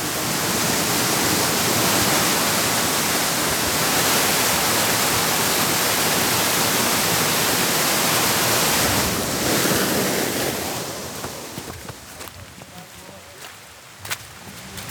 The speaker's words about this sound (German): Oh, jetzt sind wir da. Wow. Das ist erstens mal ein riesiger Wasserfall.